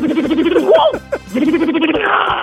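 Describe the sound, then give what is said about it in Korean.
A voice mimics the rapid whirring rattle of a pneumatic impact wrench removing car wheels at a car repair shop, a steady buzzing burst broken by sharp pitch swoops, loud. It is an entry in a sound-imitation contest on Park Myung-soo's Radio Show. “카센터에 가면은 예. 자동차 바퀴 뺄때”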